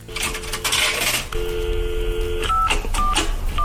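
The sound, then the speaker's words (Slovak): Clattering metallic clinks of coins dropping into a payphone in a telephone booth, followed by a steady tone and several short beeps as the booth's buttons are pressed, fairly loud with no talking. “No sú tie vymlátené tlačidlá v telefónnych búdkach a ako tam potom zapadla tá minca.”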